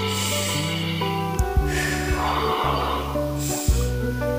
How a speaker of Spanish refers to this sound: Como toda técnica de relajación, lo primero que debemos hacer es conectarnos con nuestra respiración, tomando aire por la nariz y botándolo por la boca. Para lograr conectarse mejor con la respiración, pueden cerrar sus ojos.